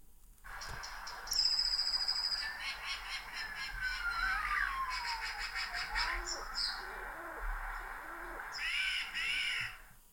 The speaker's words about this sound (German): Äh, das werde ich jetzt mal hier demonstrieren und zwar spiele ich euch den Lebensraum Stadt vor, starring Blaumeise, Wanderfalke, Star, Haustaube, Höckerschwan, Elster und Eichelheer.